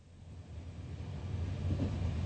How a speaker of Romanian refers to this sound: Trenul trece acum printr-o regiune agricolă.